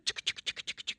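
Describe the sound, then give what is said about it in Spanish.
A voice imitates the sound of stabbing with a dagger, a rapid, even string of about nine short, hissy scraping bursts packed into one second, fairly loud with nothing else behind it. “Así que es la onomatopeya de la puñalada.”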